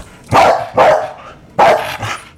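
A dog barks four times, loudly, the barks coming in two quick pairs separated by a short pause, with no voices present.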